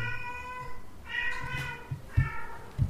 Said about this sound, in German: Oder meine Katzen.